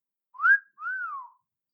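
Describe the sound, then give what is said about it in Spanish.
A two-note wolf whistle aimed at female hostesses as they enter on a TV game show: a short upward sweep, a brief gap, then a longer note that rises and slides down. It's clear, with no talking. “Ah, también silbidos a las azafatas, por supuesto, cuando entraban, el clásico”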